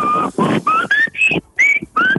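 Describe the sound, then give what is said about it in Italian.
A series of about six short, loud whistle notes, each gliding slightly upward in pitch, separated by brief gaps, with no talking. “qua puoi fare questo adesso il fischietto”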